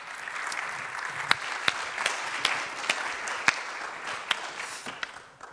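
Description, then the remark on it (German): An audience applauds steadily for several seconds as a person is called up to speak, a dense wash of many hands clapping with a few sharper individual claps popping out above it, fading slightly at the end. “Komm hoch und lasst uns um anderes einen fetten Applaus geben.”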